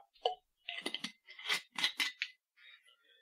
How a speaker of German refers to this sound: Das war ein bisschen wenig, oder? So, nochmal nach, nachschenken hier.